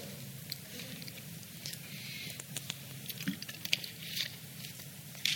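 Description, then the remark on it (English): Someone drinking water, with soft wet sips, small swallows and light mouth clicks scattered over a few seconds of quiet background. Nobody speaks. “Let me take a drink of water.”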